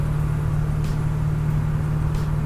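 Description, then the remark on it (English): A heavy logging truck's engine drones with a deep, steady rumble around 5:15 in the morning, holding an even loudness throughout with no clear rise or fade, and no voices present. “I woke up to the sound of a logging truck”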